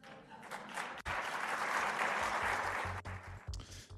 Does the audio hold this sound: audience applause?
yes